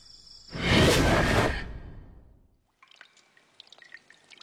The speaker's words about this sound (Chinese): 身边传来滴答滴答的水滴声，空气湿润无比。